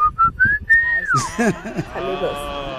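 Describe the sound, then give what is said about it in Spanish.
A person whistles a short call that identifies their family: three quick clipped notes, then a longer held tone that slides downward. Voices and talking follow right after the whistle ends. “que mandó también su silbido que identifica a su familia.”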